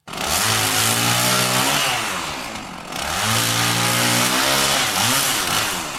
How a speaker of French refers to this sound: Ce bruit, c'est celui d'une tronçonneuse, l'objet fétiche de Javier Milei, maintes fois brandi en meeting.